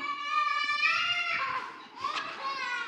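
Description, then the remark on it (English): Young boys talking in high, bright voices, their excited, overlapping chatter running steadily for about three seconds with sharp rising and falling pitch, fairly loud throughout and with no adult voice over it. “it's my nephews right there.”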